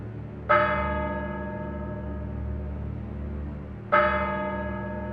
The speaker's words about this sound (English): As the clock strikes 13, it's Wednesday, the 29th of March, year of our Lord, 2023